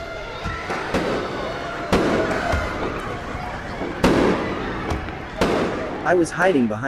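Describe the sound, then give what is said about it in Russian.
Sharp gunshots crack out at irregular intervals over a murmuring crowd in a club, and high, wavering screams rise near the end. “После этого послышались новые выстрелы и крики.”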